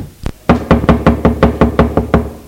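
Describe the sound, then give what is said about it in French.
A series of about nine firm, evenly spaced, loud knocks on the door of a house, following a single earlier thud, as rain begins to fall. No voices are present. “frappe à la porte.”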